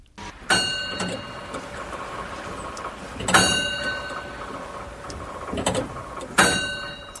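An astronomical clock mechanism being wound by its caretakers with a special lever, done every two weeks: heavy metallic clunks roughly every three seconds, each ringing briefly, with lighter clicks in between, with no talking.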